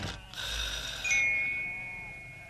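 A sheep bleats in a single drawn-out, quavering call, close and fairly loud, ending on a thin sustained tone as it fades, with no talking.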